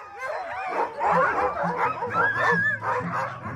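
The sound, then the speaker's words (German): A chorus of excited sled dogs, tied front and back to the sled, barks, yips and whines continuously as they leap into the lines up to a meter high; many overlapping voices with high-pitched yelps rising over a dense, frantic din. “Die flippen total aus, die Hunde. Die springen in die Seile, die springen einen Meter hoch, obwohl sie angebunden sind vorne und hinten, also am Schlitten schon.”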